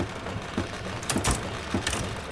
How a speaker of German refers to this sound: Der Sohn steht am Fleischkutter und beaufsichtigt die Maschine. In einer drehenden Schüssel werden grobe Fleischstücke vom Schwein Speck und Gewürze von rotierenden Klingen zerkleinert und zu einer groben Wurstmasse vermischt.